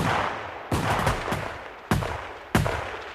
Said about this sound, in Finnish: sata vankia ja ammutaan heidät varoitukseksi muille